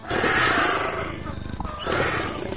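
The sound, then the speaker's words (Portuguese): A voice imitates a griffin's fierce, raspy roar, delivered in two loud bursts, a long growling one followed by a shorter one after a brief dip. “pega todo o ar de seus pulmões, tenta no assovio. O som do grifo sai de seu assovio.”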